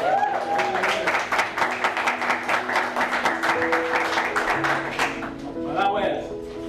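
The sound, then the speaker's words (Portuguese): An audience breaks into steady, dense applause, many hands clapping together for about five seconds with voices calling out over it, before the clapping thins out and fades. “Posso alcançar os palmas?”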